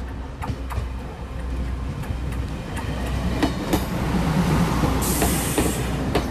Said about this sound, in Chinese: 火车轰隆轰隆的前进